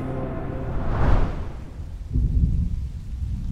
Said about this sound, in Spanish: La lluvia continuaba afuera mientras yo me sumergía en un absoluto silencio.